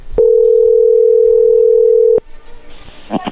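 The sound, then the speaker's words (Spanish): A steady, loud telephone dial tone, heard while a phone call is being dialed, holds one even pitch for about two seconds, then cuts off abruptly, followed by faint line noise and a brief clicking rustle. “ahí se está marcando, no da ruido.”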